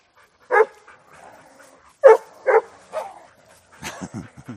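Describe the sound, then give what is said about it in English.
A dog lets out several sharp barks at uneven intervals, then ends with a quick run of short whimpering yips. No one speaks. “You guys are noisy.”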